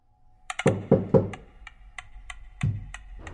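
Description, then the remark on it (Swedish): Prisoners in Gohardasht prison outside Tehran, Iran, knock on the walls of their cells in summer 1988: three heavy, hollow knocks land in quick succession, followed by a string of lighter, evenly spaced taps and one more solid knock near the end; no voices. “Sommaren 1988 börjar fångar i det stora Gohardasht-fängelset utanför Teheran att knacka på väggarna i sina celler.”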